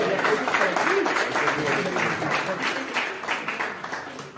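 An audience breaks into steady applause, many hands clapping in a dense, continuous patter that stays loud throughout and thins slightly toward the end.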